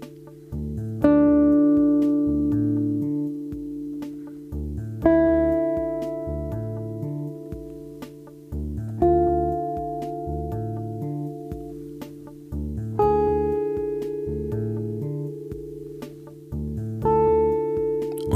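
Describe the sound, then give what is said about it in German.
A backing track for scale practice plays alone, with sustained harmonic chords over a steady, pulsing low rhythm. Its pattern repeats in roughly four-second cycles, and higher melodic notes enter at the start of each cycle. “wenn du das nachher selber übst zu dem Playback, ich lasse das Playback mal laufen, nochmal, dann versuch wirklich, jeden Ton auszukosten.”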